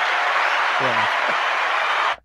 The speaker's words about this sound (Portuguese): O Zé pediu, eu vou deixar as palmas aqui pro Price.